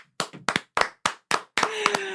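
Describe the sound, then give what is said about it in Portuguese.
A short run of hand claps applauding a story, about seven or eight sharp, loud slaps in an uneven rhythm, merging into a brief flurry of quicker clapping at the end. “Eu vou aplaudir essa história que ela é muito boa.”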